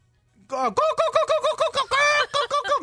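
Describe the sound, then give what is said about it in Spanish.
A person telling a joke imitates a clucking broody hen with a rapid run of short, pitched, nasal clucks, about a dozen bursts in quick rhythm with one longer drawn-out note partway through, fairly loud. “No, pues estás cacaraqueando.”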